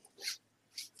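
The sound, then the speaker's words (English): A pet dog whimpers softly in two or three short, breathy bursts spaced about half a second apart, faint, with no talking. “That's my, that's my dog. He's agreeing with us.”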